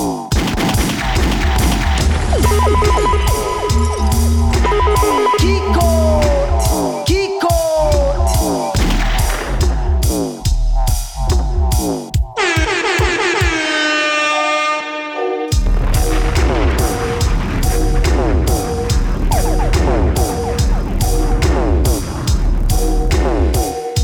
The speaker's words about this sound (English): The original to this, forthcoming on Inner Mind. This one's a dub plate.